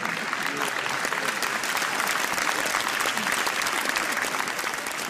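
Steady, dense applause from an audience, many hands clapping at an even loudness for the full five seconds with no pause or voices standing out.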